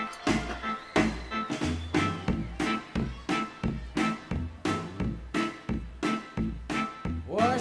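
A rock song plays with a steady, heavy beat, full-band chords and pounding drums driving in a regular rhythm, loud, with no talking over it.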